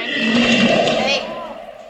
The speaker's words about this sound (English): Very close. Good, a gorilla.